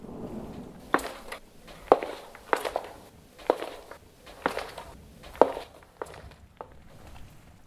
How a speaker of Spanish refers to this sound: Y finalmente, escuchamos claramente el caminar de aquel ser, con el grotesco ruido de sus garras, golpeando en el piso empedrado del pueblo.